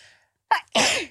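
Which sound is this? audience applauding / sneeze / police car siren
sneeze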